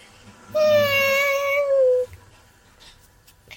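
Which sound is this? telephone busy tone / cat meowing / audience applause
cat meowing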